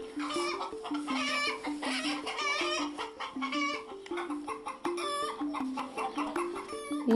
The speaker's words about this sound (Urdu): مگر مرغیاں آنے کے ایک ہفتے کے بعد ہی بلی نے ایک مرغی مار ڈالی بلی کو آس پاس دیکھتے ہی ساری مرغیاں اور مرغے زور زور سے چیخنے لگ جاتے